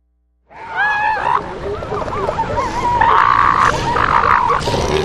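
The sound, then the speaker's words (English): A dense chorus of deep bellows, gurgling grunts and wavering calls from many elephant seals in a colony out at the headlands, overlapping continuously and fairly loud. “So I want to take a quick break here to actually let listeners hear what it might sound like out at the headlands right now.”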